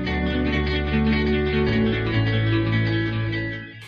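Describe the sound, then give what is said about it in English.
A loud, dense, buzzing tone plays continuously for a few seconds, thick and doubled as if the same audio runs twice with an echo, then tapers off at the end. “Somebody said there's an echo, guys.”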